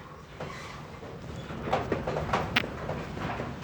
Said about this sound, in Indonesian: wow ributnya ini angin kencang sekali